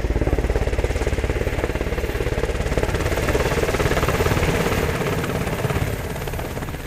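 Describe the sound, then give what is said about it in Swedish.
A helicopter's loud, steady rotor chop and engine roar fill the air as it picks up ranger soldiers at a military demonstration and flies them away. The thumping beat is continuous throughout before easing slightly toward the end as it begins to move away. “Terrängbilarna kör bort och jägarsoldaterna som flögs in hämtas åter upp med helikoptern och flygs bort.”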